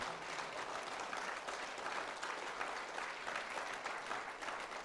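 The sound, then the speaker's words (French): An audience at a church service applauds steadily to thank the Lord, a dense, even wash of many hands clapping at a moderate level with no pauses, and no voices stand out above it. “On veux tu oui, peut-être applaudir?”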